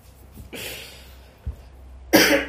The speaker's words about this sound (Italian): E della tosse. Eh, vabbè, la tosse ci sta, periodo... è un marchio di fabbrica di questo podcast.